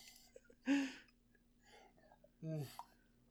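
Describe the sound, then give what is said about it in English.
Someone takes a big drink of water: two loud gulps about a second and a half apart, each a short throaty swallow with a breathy edge, separated by quiet background. “Big drink. I'm big drinking drink. water.”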